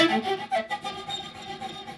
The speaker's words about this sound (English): So you can move your bow either in the middle like this, where you're barely hearing that, or at the frog, where it's just doing this kind of choppy stuff.